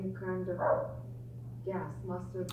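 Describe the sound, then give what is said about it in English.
A female Chihuahua, hound and beagle mix dog barks in two short bursts separated by a brief pause, the barks moderately loud over a steady low electrical hum. “She likes to bark.”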